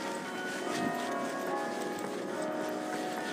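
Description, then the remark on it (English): Bell tower bells ring continuously in the background, their overlapping tones blending into a steady, shimmering wash. No one speaks. “Uh, hopefully you can hear the uh, bell tower in the background.”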